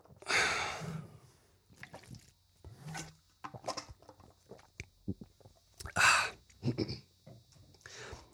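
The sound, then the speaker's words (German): Quiet swallowing and small wet gulping sounds with soft breaths as a person takes a short drinking break, punctuated by airy, breathy exhalations like a satisfied 'ah' after a drink. “So, jetzt ich mache mal kurz eine Trinkpause.”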